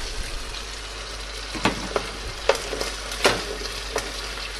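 Steady sizzling of onions and meat frying in a pan, a dense crackling hiss with several sharper pops and scrapes, moderately loud, no voices.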